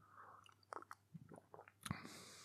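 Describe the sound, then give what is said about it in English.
Wet mouth noises of Pukka Wonderberry Green tea being sloshed around inside the mouth, with irregular squelches and small clicks over a couple of seconds, quiet and with no talking. “let's slosh that around a little bit.”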